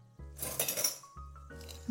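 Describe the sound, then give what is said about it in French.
A heavy cocotte (casserole pot) clinks and scrapes as it's handled, taken to brown onions in duck fat, with a couple of metallic knocks and bright ringing clatter, fairly loud with no talking. “Je vais prendre une cocotte.”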